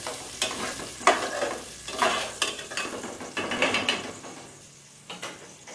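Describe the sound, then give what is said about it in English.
Steady sizzling of garlic frying in a frying pan on minimum heat, with bursts of scraping and stirring clatter roughly every second. No one speaks. “And now, if I'm not mistaken, we should instantly add the spaghetti while the garlic is frying or something like that.”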